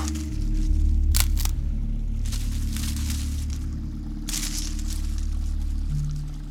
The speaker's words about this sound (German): Und dann habe ich eben etwas gehört. Rascheln und Äste knacken und so.